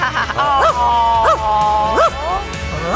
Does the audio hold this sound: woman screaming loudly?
no